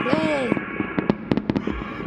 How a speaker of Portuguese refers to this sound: Aleluia! Pablo, coloca aquela aleluia, psh, psh, fogo de artifício.